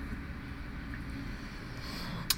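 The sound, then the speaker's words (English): A low, steady engine rumble from a bus arriving outside a building, muffled, droning throughout with a brief sharp click near the end. “And that noise marks the arrival of a bus outside my building.”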